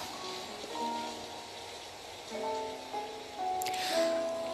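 A steady hiss of rain falls beneath soft, sustained melodic tones, swelling slightly midway, with a brighter burst of spray or splash near the end.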